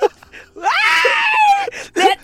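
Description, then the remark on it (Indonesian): A loud, strained vocal scream held for about a second in the style of a heavy metal shriek, done by a voice imitating it, with brief bits of speech just before and after. “kayak pengen teriak metal di depan lontong.”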